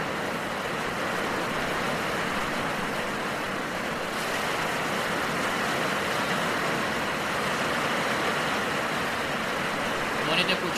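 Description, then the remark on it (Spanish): Steady rain falls without pause, a dense, even hiss of drops that holds at the same moderate loudness throughout, with no voices over it. “Es relajante tener la, la bendición de la lluvia acá con nosotros.”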